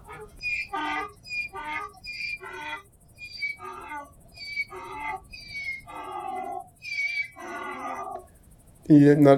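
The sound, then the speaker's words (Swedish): Donkeys at a stable bray in a long series of rough, wheezing calls that rise and fall in a steady rhythm, ending with a louder, harsher burst. “Jag märker att det är en stall för att man hör de här åsnorna”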